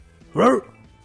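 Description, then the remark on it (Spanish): A person imitates a dog with one short, loud "woof," standing alone against a quiet background. “Entonces contesta, marca el teléfono y contesta el perro, güey.”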